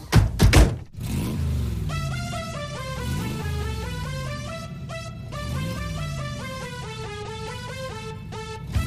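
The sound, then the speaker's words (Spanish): A few heavy thuds open, then a loud synthetic car-engine revving effect, the cosmic sounds of a gifted hands-free car with little lights called Kit, repeatedly climbs in pitch in steady waves, continuous, with no one speaking. “hoy le han regalado un coche pepino, se conduce sin las manos, tiene lucecitas y sonidos cósmicos y una voz robótica”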